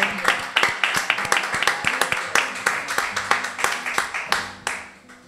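A crowd applauds steadily, many hands clapping in a dense, continuous patter of sharp bursts that holds at a fairly even loudness throughout, with a murmur of voices beneath.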